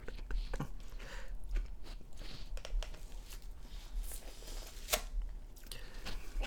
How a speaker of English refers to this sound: Oh, and the lid has come off. It's just a block away. Now I'm chewing plain ice.